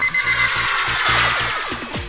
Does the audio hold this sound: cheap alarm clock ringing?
yes